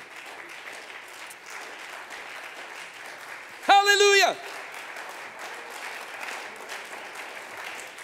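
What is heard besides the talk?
audience clapping hands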